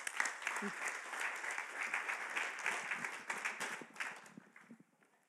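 An audience breaks into dense, steady applause, many hands clapping at once in a busy, bright patter that holds strong for several seconds before thinning out and fading toward the end.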